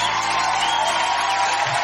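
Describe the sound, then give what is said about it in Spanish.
A crowd applauds and cheers in a steady, dense wash of clapping with scattered whoops, holding at an even loud level throughout without any talking. “Aplausos.”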